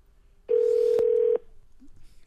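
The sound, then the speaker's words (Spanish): A telephone dial tone as a call is being placed, a steady mid-pitched hum lasting under a second, is broken by a sharp click midway and ends abruptly with another click. No one speaks. “Márcale, por favor.”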